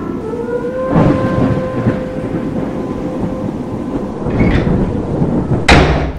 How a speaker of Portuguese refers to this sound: Ah, consegui fechar as janelas. Caros ouvintes, que tempestade!